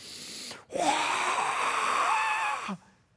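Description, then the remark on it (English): A pastor's voice imitating a dragon breathing fire: a single long, forceful breathy roar, rasping and hissing for about two seconds, preceded by a brief sharp intake of breath. “just breathe the fire on them, burn them to a crisp, right?”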